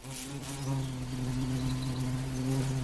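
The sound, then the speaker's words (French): A deep, steady insect buzz drones without pause, its low hum rich in overtones: a violet carpenter bee, a plump, black, blue-sheened solitary bee, buzzing in Paris. No one speaks. “Aujourd'hui, le xylocope violet ou abeille charpentière.”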